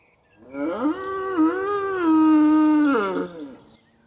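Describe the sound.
A human voice imitates a little bull's moo: one long, low, sustained bellow lasting about three seconds, swelling and wavering slightly in pitch before dropping off at the end.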